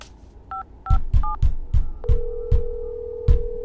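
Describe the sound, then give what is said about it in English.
Three quick two-tone keypad beeps, then a steady higher tone, over a series of regular heavy thumps, like telephone keypad dialing against a rhythmic pounding; someone is dialing to call the police, 911, about an intruder. “I'm calling the cops.”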